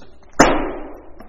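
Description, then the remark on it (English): A small door shuts with a single sharp click-thud that rings briefly before fading, followed by a fainter tap a moment later. “A little door just closed.”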